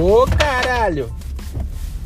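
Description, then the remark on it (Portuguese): A loud, sudden creaking squeal of wooden baseboards coming loose from the wall on their own, with a sharp crack at the start, followed by a startled exclamation from a man and quieter rustling afterward. “Esse barulho que vocês ouviram era, era os rodapés.”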